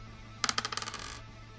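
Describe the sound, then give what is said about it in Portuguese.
A twenty-sided die clatters across a table in a quick run of sharp, bright clicks that bounce and tumble for under a second before settling, over a faint steady hum. “Pode rolar o D20 aí.”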